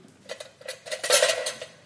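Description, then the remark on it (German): A tablespoon clinks and scrapes against dishes in a quick series of bright metallic taps, moderately loud, with no talking, as it is used to measure out ingredients for a sauce. “Dazu brauchen wir einen äh, ein Esslöffel, um das zu dosieren.”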